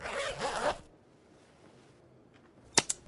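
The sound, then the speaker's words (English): A finger-stick lancet device used for type 1 diabetes glucose testing: a short rasping, zipper-like rustle, a brief quiet pause, then two sharp, quick clicks as the spring-loaded lancet fires. No one speaks. “This is the sound of managing your type 1 diabetes using finger sticks.”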